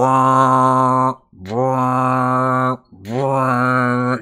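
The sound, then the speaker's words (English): Three loud, blaring klaxon alarm blasts, each about a second long with a quick rising swell at the start, repeating in a steady rhythm with brief gaps between them. No voices. The alarm of intruders is being sounded by Xardorok. “sounds like claxons basically going off, like alarms have been sounded.”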